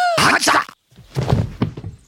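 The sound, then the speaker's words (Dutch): A karate blow to a man's head lands as a dull, heavy thunk, followed after a brief pause by a scuffle of softer knocks and thuds. “Wat een mooie klap op zijn kop.”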